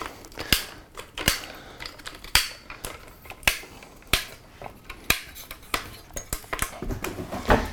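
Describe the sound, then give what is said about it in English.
A Manfrotto snap-lock camera tripod is set up in a hurry, taking 15 seconds: a quick, irregular run of sharp plastic and metal clicks and clacks as legs extend and latches snap shut, with no talking. “So let's see how long it takes me to set up my Manfrotto that I've used for 15 plus years, and I'm pretty fast at it. Okay, ready and go.”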